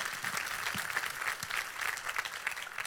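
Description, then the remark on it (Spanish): A crowd breaks into sustained applause for their God, a dense, steady wash of many hands clapping together for several seconds, fairly loud and even throughout with no voices rising above it. “Le dan un fuerte aplauso a su Dios en el día de hoy.”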